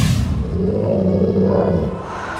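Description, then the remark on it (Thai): A giant, just appeared from an old lamp and freed, gives a loud, joyful, deep roaring shout: one sustained booming bellow lasting about two seconds, powerful with a rumbling low growl throughout, heard alone without other talk. “และได้ตะโกนเสียงดังแสดงความดีใจ และขอบคุณที่ทำให้เขานั้นเป็นอิสระ”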